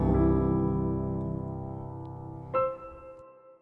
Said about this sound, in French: et puis on va partir vers les questions. C'est la chanson des questions.